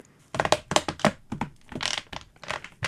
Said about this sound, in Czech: Tak to je ohýbání lampičky My Light. Je to lampa, která vypadá jako trubka, protože je vyrobená z trubky od klimatizace a dá se teda různě ohýbat a vlastně je v ní vložená žárovka.